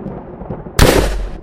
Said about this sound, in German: Ding, ding. Donnerschock.